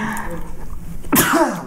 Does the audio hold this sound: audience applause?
no